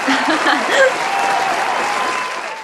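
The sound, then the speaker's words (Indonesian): An applause sound effect added in editing: steady group clapping, dense and rapid, holding at a fairly loud level for a couple of seconds with faint voices mixed in, then tapering off slightly at the end. “Yeay, kita tepuk tangan dulu dong. kemudian yang edit suruh pakai sound effect tangan.”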